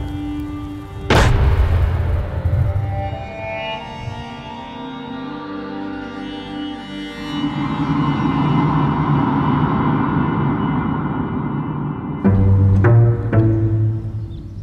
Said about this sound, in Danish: Bang! En mand nede. Matt bliver stadig beskudt, og hans tøj er gennemhullet af kugler. Men ved et mirakel bliver han ikke alvorligt ramt.